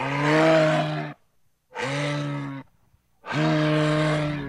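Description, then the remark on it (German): A moose gives three long, loud, deep bellowing calls in a row, each lasting about a second with short pauses between, with no other sounds. “Und fast im ganzen Land leben Elche”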